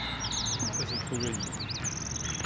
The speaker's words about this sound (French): Et là, on a un pinson qui revient en plus. Donc ça, c'est un pinson.